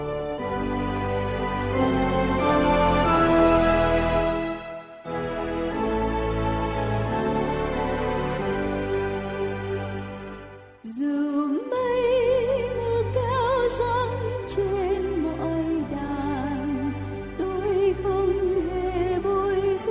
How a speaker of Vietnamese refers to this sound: trước khi chúng ta đến với phần sứ điệp ngày hôm nay xin kính mời quý vị cùng lắng lòng để lắng nghe bản thánh nhạc tôn vinh